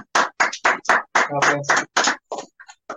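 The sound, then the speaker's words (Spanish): Steady, evenly spaced clapping from a small group applauding the parents, about four claps per second, with a brief voiced shout or cheer rising over the applause midway. “Entonces, que van un fuerte aplauso a los”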